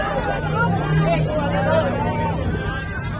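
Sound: crowd shouting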